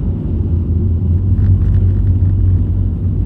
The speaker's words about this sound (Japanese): まあ結構ゆっくり走ってたからかなまあいかんせん道路が凍ってるもんでね安全運転で行きつつやってるんですけども